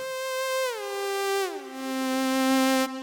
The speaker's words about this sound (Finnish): No sitten löytyy perinteinen saha-aalto